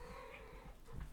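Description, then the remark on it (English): A female cat lets out a single drawn-out meow, not loud, with a faint low background rumble and no talking. “That was my cat being an asshole.”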